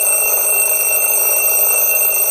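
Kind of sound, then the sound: household object, alarm clock ringing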